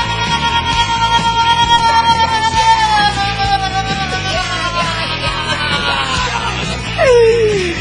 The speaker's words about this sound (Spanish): Los aplausos son, son para todos ustedes. ¡Wow! Esos aplausos quedaron grabados ayer cuando me vieron entrar a la Feria Chiapas.